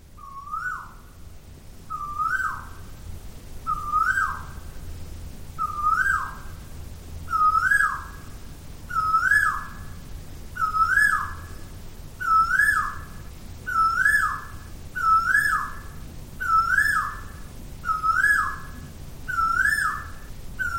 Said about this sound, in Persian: توی شمال تایلند و شهر چیانگ مای صدای بلند و عجیب پرندهی گاه و بیگاه منو کنجکاوم میکرد و هر دفعه به دلیلی نمیتونستم پیداش کنم بیاین صداشو بشنویم با هم تا یکم ملموستر باشه به جزئیات و فواصل تولید صداش لطفا دقت کنیم